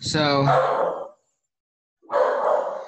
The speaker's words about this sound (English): Sorry about my dog.